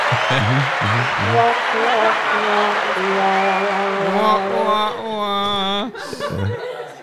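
A canned applause effect played from a soundboard: steady clapping from a crowd, mixed with bursts of laughter and a sustained whooping cheer near the end, loud and continuous for several seconds.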